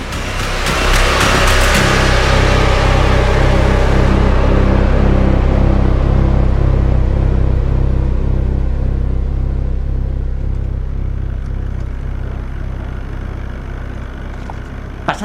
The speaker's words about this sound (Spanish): La barca estaba hecha un asco, pero el motor ahí seguía, R que R.